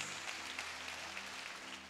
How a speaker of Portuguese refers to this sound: Amém. Para dar uma salva de palmas para Jesus.